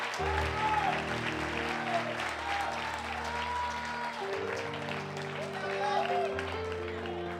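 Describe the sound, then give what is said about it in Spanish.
A church audience gives a loud round of applause to the Lord, clapping steadily for several seconds in a dense wash over sustained organ or keyboard chords, with some voices mixed in. “Dele, dele un aplauso fuerte al Señor.”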